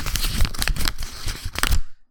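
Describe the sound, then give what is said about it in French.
Crisp paper rustling and crinkling in a quick series of scratchy bursts as a slip of paper with a name written on it is drawn at random and unfolded, ending abruptly in silence. “Bon, alors les gars, euh, j'ai vos noms décrits sur des papiers et je vais en piger un au hasard.”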